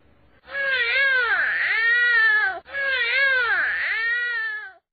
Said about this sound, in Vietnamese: Rặn rồi thở hổn hển, thở rồi rặn nữa, rồi nghe tiếng con nít bé oa.